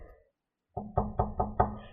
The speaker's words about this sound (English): Let's say. Okay. Let's say tomorrow you get a knock at your door,